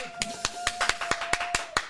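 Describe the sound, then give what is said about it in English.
A single person's steady hand clapping: about nine sharp, crisp claps at an even, fairly quick rhythm, with a faint sustained tone humming underneath. “Let's all have a round of applause for the 2023 of the You Should Know podcast.”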